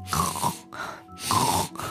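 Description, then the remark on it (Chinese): A voice imitates a soldier snoring while lying on a bed in a told fairy tale, loud, rasping snorts in a steady rhythm, about four breaths in two seconds, rough and throaty with no words spoken. “他想起老婆婆对他的提醒，于是悄悄地把酒给倒了，然后躺在床上打起呼噜。”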